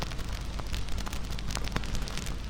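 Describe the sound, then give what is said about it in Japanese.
A campfire crackles steadily, its soft roar of burning wood dotted with sharp, irregular pops and snaps from the firewood, continuous with no voices. “リラックスできたら焚き火の音に耳を傾けましょう軽く目を閉じて揺れる炎燃える薪の匂い暖かな空気をイメージしてみてくださいゆらゆらと炎が揺れパチパチと小さく弾ける薪の音が聞こえてきます”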